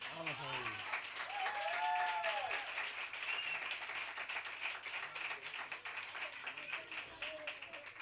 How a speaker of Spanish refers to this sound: Y este es el aplauso que os merecéis.